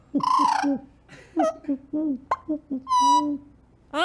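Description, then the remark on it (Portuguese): An imitated owl hoot: several fairly loud, warbling hoot-like calls in an uneven run, with a longer call at the start and another near the end, and no speech. “A coruja, como é que a coruja faz?”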